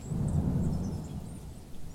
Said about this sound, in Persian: یک صدای رد و برق همه جا رو پر کرد و کم کم قطره های بارون زمین رو گلی کردند.